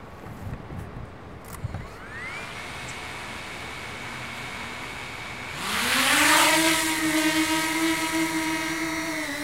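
An NS drone's propellers spin up in the station hall in Utrecht with a rising, whining buzz. A brief tone first climbs and holds, then the motors surge loudly into a steady, high-pitched drone with no talking.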